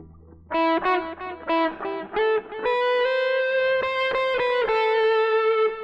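A distorted electric guitar, played through an effects unit preset that emulates a famous guitarist's tone, plays a short melodic phrase of repeated notes, then settles into long sustained, singing tones. The tone is thick, saturated and loud throughout, with no voices.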